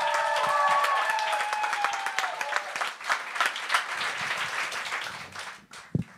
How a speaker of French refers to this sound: Et on accueille avec un tonnerre d'applaudissements